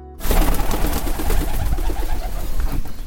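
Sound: pigeons cooing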